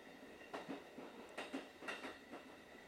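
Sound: train running on rails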